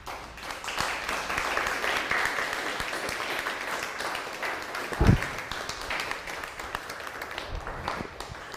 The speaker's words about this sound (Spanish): Dele un fuerte aplauso al Eterno, por favor